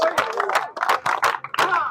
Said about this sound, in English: Hey, clap for Jesus.